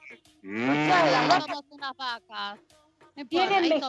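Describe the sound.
A person imitates a cow, letting out a long, drawn-out moo followed by several shorter vocal bursts and another moo-like call, all fairly loud.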